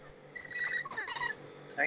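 Lorikeets chirp and squawk in quick, overlapping bursts from the trees, with a louder shrill call near the end.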